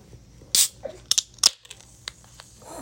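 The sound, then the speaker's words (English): A sharp pop, like a beer can's tab cracking open, followed by a few quick metallic clicks and a faint hiss of fizz, with no one talking. “Sizzle, sizzle. Crisp opening.”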